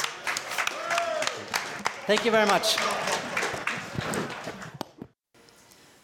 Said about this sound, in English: Uh, so, uh, a big warm of, of applause for the three world class keepers.